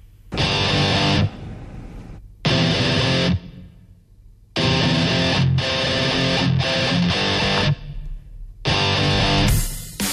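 Loud, distorted hard rock guitar chords hit in bursts separated by short gaps, a full band riff stopping and restarting in a stop-start rhythm, close and prominent with no talking.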